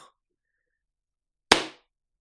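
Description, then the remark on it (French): A single sharp slap lands on the back of the neck, a loud smack with a brief ringing tail, after a moment of near silence. “ça c'est des claques derrière la nuque, comme ça des stangalaks On appelait, ça au collège des stangalaks”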